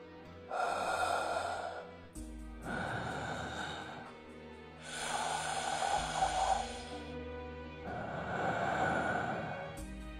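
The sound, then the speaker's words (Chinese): Four slow, heavy, eerie breaths coming from the stone river at the center of an altar, each lasting about two seconds, drawing in and out in a steady rhythm. They are breathy and hissing, with a low drone beneath and no talking. “一道道呼吸声。不是来自胡老道和华老众人之口，而是来自祭台中央的石河之中。”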